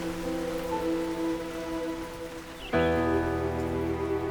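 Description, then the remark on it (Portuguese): Light, fine rain falls onto the earth in a steady soft hiss, layered with sustained humming tones; about two-thirds through, the sound shifts and grows slightly fuller and louder. No one speaks. “Nossos dias eram felizes e ensolarados, exceto quando uma chuvinha fina e gostosa caía sobre a terra e fazia o aroma do paraíso nos fazer suspirar.”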